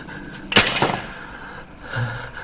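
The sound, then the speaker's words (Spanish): An axe drops onto a hard floor with a loud metallic clang, then a quick second bounce, followed by a low background hum. “David suelta el hacha.”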